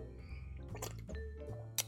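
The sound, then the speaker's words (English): Someone takes a quick swig of water: a few soft, wet gulps and swallowing sounds, with a small sharp click near the end and a low hum underneath. “I need a swig of this water.”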